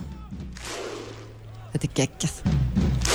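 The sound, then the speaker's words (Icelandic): A crowd's rhythmic Icelandic Viking thunderclap 'hú' chant sits underneath a speaking voice, with a few heavy, evenly spaced booming claps and a wash of crowd roar between them. “Við heyrum húið aðeins undir núna, heyrið það?”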